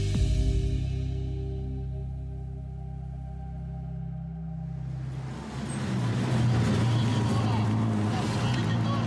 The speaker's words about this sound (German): 2013, Brescia in Norditalien. Das Heulen und Brummen lauter Motoren erfüllt den mittelalterlichen Stadtkern. Es ist die Mille Miglia, die bekannteste Oldtimer-Rallye der Welt